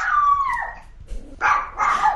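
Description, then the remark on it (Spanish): A dog lets out a drawn-out, falling howl, then after a short pause gives two loud, harsh barks. “El perro no quiere a Smart.”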